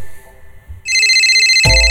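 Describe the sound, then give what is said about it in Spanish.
A mobile phone ringtone starts up loud after a moment of low background rumble, its bright electronic melody repeating steadily with a brief jolt near the end; it is the cellphone of the old man Pendejo, lighting up. “Era el celular del viejo de pendejo. Otra vez.”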